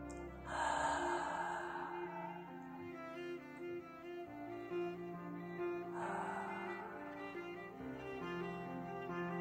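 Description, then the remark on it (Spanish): Two long, breathy, audible exhalations during a guided breathing exercise, each lasting about a second and a half and spaced several seconds apart, over a soft, steady musical drone. “Y desde ahí, con una exhalación sonora”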